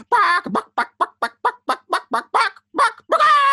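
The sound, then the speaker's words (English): A voice imitates a chicken, recorded as the squawking of Camilla the Chicken for a song, with a rapid run of about a dozen loud, clucking squawks, closely spaced and ending in a longer, strained squawk. No other sounds accompany it. “It's like 10 and minutes of, uh, of, of squawking.”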